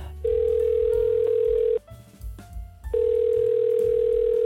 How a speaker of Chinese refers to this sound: 其实，嗯，他现在还不在台湾，我要来打电话把他叫回来一下下。好，我现在先来，现在打一下这个越洋电话哦。